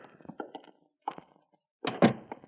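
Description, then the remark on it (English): A front door is pushed open: a few soft clunks and rattles, a brief pause, then a louder wooden thump and scrape near the end, with no one speaking. “door's open. Come on in.”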